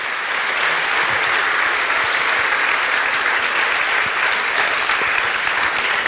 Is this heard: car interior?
no